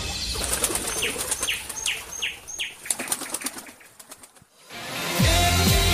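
Loud, rapid wing flapping as birds take off, a flurry of beats lasting several seconds with a few short chirps mixed in, then a brief quiet before a musical tone begins.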